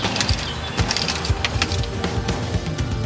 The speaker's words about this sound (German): Und los. Tür abschließen.